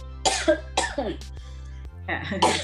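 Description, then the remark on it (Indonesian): A run of dry, hacking coughs, three or four short harsh bursts spaced unevenly, with a final longer rasping cough at the end. “Ini maaf lagi batuk mungkin ya. kering, kering.”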